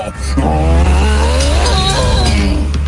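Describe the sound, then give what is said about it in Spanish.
Loud traffic noise with a deep engine rumble and a high, wavering tire squeal as a vehicle skids, lasting the whole moment without any talking. “La escuela, el tráfico. Cuidado con la guagua.”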